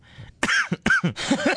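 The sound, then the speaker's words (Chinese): A burst of harsh coughing from a speaker who could not hold it back: after a faint breath, three or four loud, rough coughs come in quick succession, with throaty, raspy edges and brief gaps between them. No one speaks. “哎呀，我这咳嗽还是没忍住，让杨颖给整出来了啊！”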